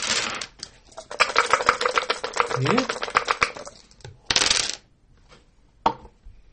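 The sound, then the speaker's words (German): Three dice rattle in a rapid, clattering burst as they are shaken, then a couple of sharp clicks as they are rolled, land and tumble; a short word is spoken. “Das sind drei Würfel? Ja. Richtig.”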